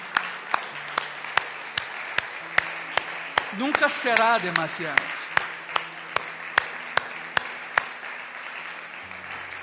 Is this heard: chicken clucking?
no